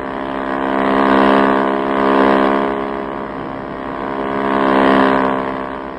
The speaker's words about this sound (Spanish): hace girar la rápida lancha levantando una columna de espuma